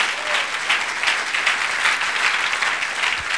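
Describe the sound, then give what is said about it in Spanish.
Sustained applause from a church audience clapping for the Lord, a dense, steady wash of many hands clapping at once, even for several seconds with no voices standing out. “Démosle un aplauso al Señor.”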